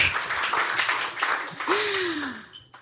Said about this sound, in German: Ich bin erfolgreich, ja, ja, ihr könnt gerne klatschen. äh, ich werde begehrt. Ja, dafür könnt ihr auch klatschen.